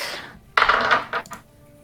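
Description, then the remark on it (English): Dice rolled for initiative in a tabletop role-playing game, totalling thirteen, clatter onto a hard table in a sudden rattling burst, tumble for about half a second, then settle with two or three small clicks. No one speaks. “I need you to go ahead and roll initiative.”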